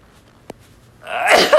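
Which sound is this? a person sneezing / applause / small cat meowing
a person sneezing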